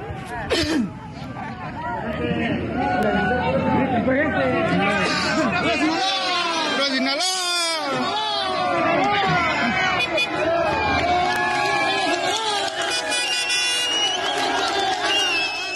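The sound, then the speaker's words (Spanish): A large crowd in Mexico cheers and shouts continuously as armed cartel armored vehicles parade past, many overlapping voices whooping and yelling "Puro Sinaloa" and "arriba Sinaloa", with a brief swell of excited cries in the middle and constant babble throughout. “aplauden y vitorean la presencia del cártel de Sinaloa”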